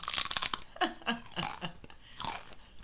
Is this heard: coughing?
no